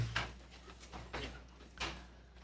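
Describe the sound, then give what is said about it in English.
Several scattered creaks and scraping shuffles from chairs as an audience rises for a scripture reading, irregular and fairly quiet, with a low steady hum underneath and no talking. “These chairs are a little bit louder, aren't they?”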